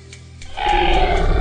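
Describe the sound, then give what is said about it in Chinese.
A zombie's roar bursts in after a brief quiet moment, a harsh, growling howl that swells loud and holds steady, rough and raspy, for about a second with no speech. “蓦然，顾白听到僵尸的怒吼，不由得心头一跳，抬眸看了过去，却惊讶的发现。”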